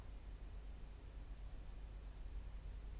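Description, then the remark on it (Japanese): Faint, steady high-pitched chirping like a bell cricket rings out at night, just after midnight on September 7, briefly pausing midway, over a low rumbling background hum with no one talking. “いやちょっと今日も、鈴虫的な音聞こえますか”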